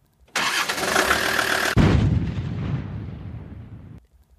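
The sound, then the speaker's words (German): A just-repaired car engine cranks with a harsh, steady starter whir for over a second, then catches and rumbles low and loud, idling for a couple of seconds before cutting off. “Nun, probieren geht überstudieren. Starten wir den Wagen.”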